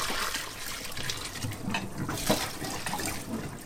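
Water used to blanch cauliflower pours out of a pot in a steady, splashing gush that lasts the whole stretch, with bursts of sloshing and a brief clatter around the middle. No one speaks.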